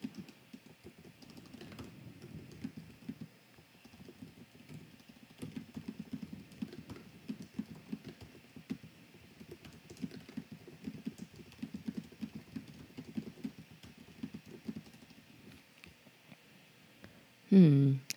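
Steady typing on a computer keyboard while writing an email: a continuous stream of quick, light key clicks with small pauses, over a faint background hum, ending in a short louder burst.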